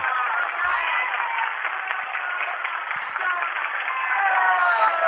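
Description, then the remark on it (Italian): A large Tokyo audience applauds steadily for several seconds, a dense, continuous wash of clapping that sounds slightly muffled, as if heard over a broadcast. “L'applauso del pubblico di Tokyo.”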